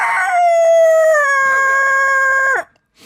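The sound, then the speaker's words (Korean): A single loud, drawn-out rooster crow, rising then holding a long quavering note before cutting off abruptly, apparently imitated by a human voice, with no other sound around it. “와, 닭 울음소리 지대로네요, 어, 진짜.”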